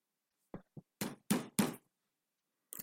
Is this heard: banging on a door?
yes